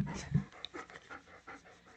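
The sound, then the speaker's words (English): A dog pants right up against the microphone, quick breathy huffs in a steady rhythm, close and fairly loud, with no talking over it. “Oh, into the microphone. She's like, I'm the star now.”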